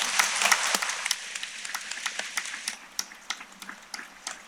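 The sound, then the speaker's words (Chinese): An audience applauds with dense, crackling clapping that starts full and loud, then thins into scattered individual claps as it tapers off over several seconds. No voices are heard. “手放下来，鼓掌吧。”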